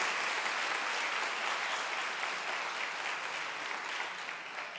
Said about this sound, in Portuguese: Nós somos bíblicos, uma igreja bíblica. Você pode aplaudir ao Senhor por isso, gente?